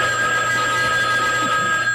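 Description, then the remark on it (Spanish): A home telephone rings loudly and continuously one afternoon for the whole two seconds, a steady, high electronic trill with no pauses and no voices. “Entonces, eh, eh, una tarde suena, ¿cómo era el número de tu casa? El de eh, teléfono.”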